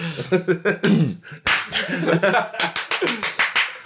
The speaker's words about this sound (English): so just, just just for the benefit of the reader who's hearing all the claps we clap when we have an edit point, and um, whoever's editing it just hasn't done that. so that's what you've heard. Multiple times.